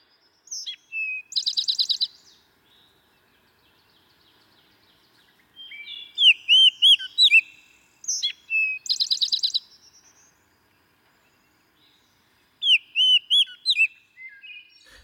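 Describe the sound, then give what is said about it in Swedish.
A Baltimore oriole sings clear, whistly phrases in three or four separate bursts with short pauses between, fairly loud against an otherwise silent background. “Den heter ju Baltimore Oriole på engelska då, amerikanska.”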